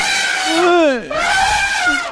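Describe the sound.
A man screams loudly during orgasm in two long, strained bursts, his voice sliding sharply in pitch with a brief catch between them.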